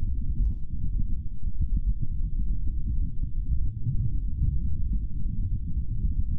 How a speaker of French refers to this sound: Ouais, les fréquences sont trop basses pour euh, l'entendre sans casque. Tu sais ce que c'est Eh ben c'est du vent. Oui, mais pas n'importe quel vent. Du vent martien. Mmh. eh ouais, Pompidou, du vent enregistré à la surface de Mars.